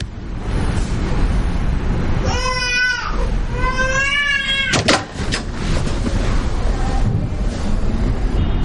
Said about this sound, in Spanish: Escucha el llanto y al poco acude a Nicolás.